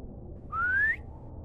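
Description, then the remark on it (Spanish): A single clear whistle rising smoothly in pitch, held for about half a second, the kind used to call a dog, heard around 4 or 5 in the morning over a low background rumble with no voices. “Era el sonido de un silbido, pero no cualquiera. Era el mismo silbido con el que solía llamar a mi perro.”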